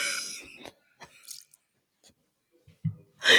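Wet mouth noises: a sputtering spray at the start, scattered clicks and squishes, then a final burst as a person spits out a sip of water they had just taken. No one speaks.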